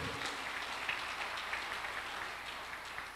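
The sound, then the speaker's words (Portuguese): A crowd claps steadily as applause for Jesus, a dense wash of many hands at once, sustained at an even level throughout with no voices standing out. “Você pode dar um aplauso a Jesus ou não?”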